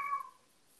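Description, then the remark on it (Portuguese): A cat lets out one short, soft meow that fades within a fraction of a second, leaving quiet room tone. No one speaks. “Meu gato está participando aqui do, do, do, podcast.”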